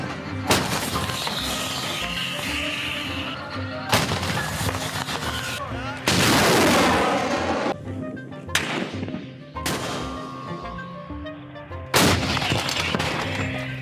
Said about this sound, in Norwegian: Vi krigen pågår jo eh, ganske intenst hele tiden, selv om ikke det er oppe i media. Eh, vi kan f.eks. høre litt fra krigføringen i Deir ez-Zor her.